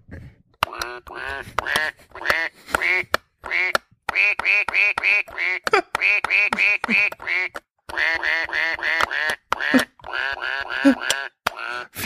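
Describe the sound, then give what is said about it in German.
A toy piano plays the children's song "Alle meine Entchen" as a simple tune made of duck quacks, dozens of pitched quacking notes grouped in rhythmic phrases with short pauses, loud, with no talking. “Spiel alle meine Entchen auf Ente.”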